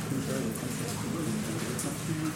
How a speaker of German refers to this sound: Ich höre so ein entferntes Gurgeln. Der holt gerade Luft, der Krater.